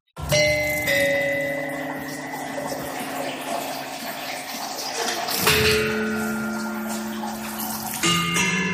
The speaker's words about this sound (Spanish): como por ejemplo el barberófono, un instrumento peculiar, desde luego, eh, que me vas a, nos vas a contar en qué consiste, pero primero, ¿cómo suena?